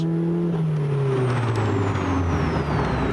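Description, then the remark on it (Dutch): A 1950 Morgan Plus 4 classic sports car with a four-cylinder Ford engine and an Aero Racing sport exhaust drops off throttle, its deep note winding down steadily while crackling exhaust pops sputter through the loud rumble. “En dan van die lekkere, lekkere plofjes als je het gas loslaat.”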